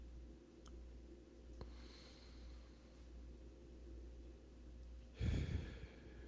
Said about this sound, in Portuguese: Portanto, Vamos elevar nossos pensamentos aos céus, manter os nossos melhores sentimentos no nosso coração, fazer uma respiração profunda.